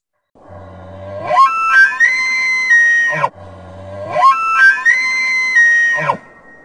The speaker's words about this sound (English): Um, but first, let's hear the sound of an elk to hear how cool that is. So here's an elk bugle.